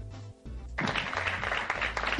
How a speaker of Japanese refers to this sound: 拍手が、拍手が。